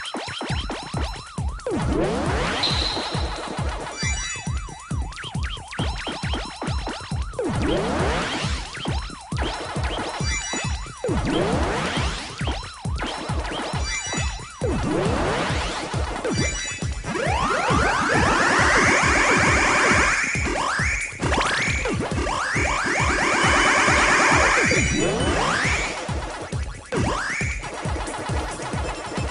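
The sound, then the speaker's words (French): Rapid electronic arcade-game chimes and bleeps from Pac-Man Championship Edition Deluxe ring out in a fast chain as ghosts are eaten one after another, over a steady pulsing beat, loud and continuous for the whole stretch, with rising sweeps and no one talking. “Pac-Man Championship Edition Deluxe, euh, ce que vous attendez, ce que vous avez entendu avec les sonneries et tout ça, c'était les fantômes en train de se faire manger à la eh chaîne.”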